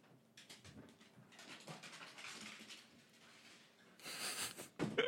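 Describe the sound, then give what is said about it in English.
A dog, little Rascal, whimpers and pants, with quick breathy bursts and soft whines repeating over several seconds and growing louder toward the end, with no talking. “I have a major dog problem right now.”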